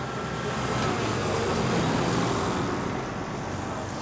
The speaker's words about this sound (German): Diesellastwagen fahren ein und aus auf dem Betriebshof der Spedition Zufall in Fulda. Schwere Sattelzuglastwagen, die bis zu 40 Tonnen transportieren können.